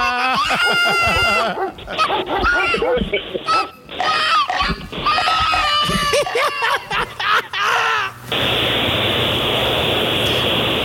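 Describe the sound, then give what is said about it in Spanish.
A dog barks and growls in bursty outbursts mixed with people talking loudly, before the sound gives way to a steady rushing hiss near the end. “No, no, no, no, no, no, perrito bonito, no.”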